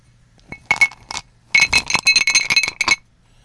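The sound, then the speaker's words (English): Bright glass clinks ring out, a short cluster first, then a quick run of rattling clinks after a brief pause, with no voices. “And then here we go, clinking it in.”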